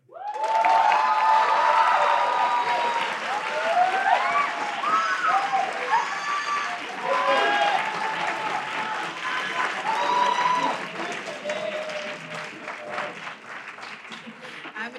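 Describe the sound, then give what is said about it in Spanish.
A large audience claps and cheers loudly to welcome a guest at a student event on a university campus in Toluca, with whoops and shouts rising over sustained applause before gradually tapering off toward the end. “muchas gracias por, por su gran recibimiento.”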